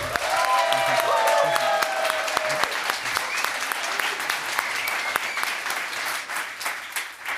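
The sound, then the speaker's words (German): A crowd claps steadily in applause for Mahmoud Abdul Rauf as the audience votes by applause on who wins, a dense wash of many hands with a few whistling cheers rising over it early on, then gradually thinning out as the applause continues. “Einmal bitte den Applaus für Mahmoud Abdul Rauf.”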